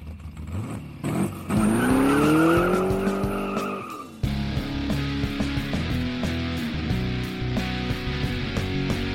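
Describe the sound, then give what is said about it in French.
Car tires screech loudly in a sustained, wavering squeal for a couple of seconds, then cut off abruptly, leaving a rumbling engine and road noise. No one speaks. “des pneus qui crissent, des pneus qui crissent”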